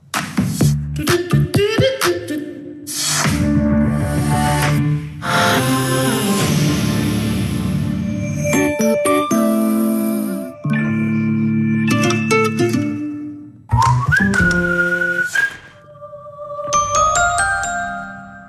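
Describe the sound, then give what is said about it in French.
A rapid succession of seven short, distinct brand jingles and sonic logos, in order Carrefour, AXA, Renault, EDF, RATP, But and Aéroport de Paris, each a brief melodic chime or tune, played back to back with abrupt cuts between them, loud and clear with no talking. “on a reconnu dans l'ordre Carrefour, AXA, Renault, EDF, RATP, But, Aéroport de Paris.”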